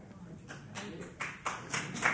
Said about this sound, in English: That gets applause. Thank you.